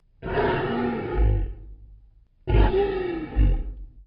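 A lion roars twice, two deep, loud, rumbling bursts separated by a short pause, with no talking.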